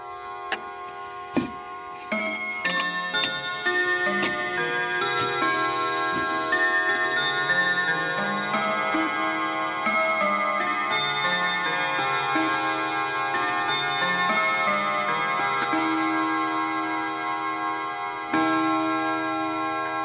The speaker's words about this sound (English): the chimes at Bill Williams' Colyton Clocks Museum in Manawatu.